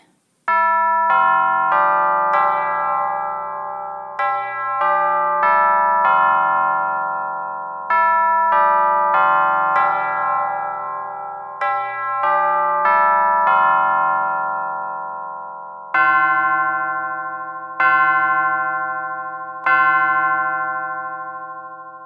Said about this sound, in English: It is the middle of the night, and the clock has struck three times. Witching hour.